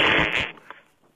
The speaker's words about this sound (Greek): Γέλασες. Τι κάνεις τώρα, κλάνεις.